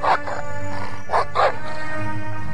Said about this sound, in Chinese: 哦，糟糕！住在这里的狗要来咬旺旺了。旺旺一听到声音，就赶快逃走了。 为什么那些狗要欺负旺旺？ 因为那些狗住在这里。他们觉得这个垃圾堆是属于他们的地方，不准外来的狗跑来抢他们的食物。